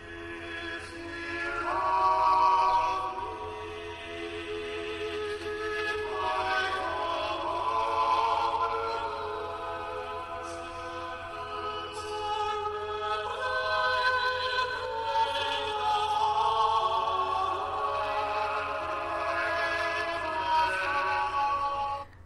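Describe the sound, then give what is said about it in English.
The choral anthem 'If ye love me, keep my commandments' plays from a playlist through a small phone speaker, sung plainly to focus on the words rather than the music, with sustained harmonized voices singing slowly, the texture thin and tinny, swelling and easing in steady phrases without any talking over it. “sung in a way that focuses on the words themselves rather than the music”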